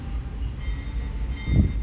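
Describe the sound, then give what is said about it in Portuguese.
A train rolls past with a steady low rumble and faint rail clatter, swelling briefly louder near the end of the short stretch; the train has a small bell rather than a horn. No one speaks. “Agora vai passar o trem.”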